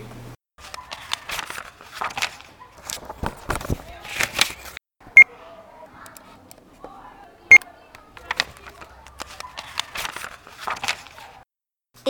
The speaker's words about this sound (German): Mucksmäuschenstill ist es um 14 Uhr in der Bibliothek. Man hört nur Buchblätter und Piepstöne.